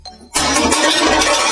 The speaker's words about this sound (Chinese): 野狼真的急了。转身去找了一把锤子，野狼憋足劲儿，挥起大铁锤敲了下去。